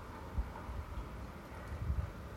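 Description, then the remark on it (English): Low, steady wind rumbling and buffeting the microphone, with a couple of stronger gusts thumping through a broad, hissing background. “I'm going to tune into the wind.”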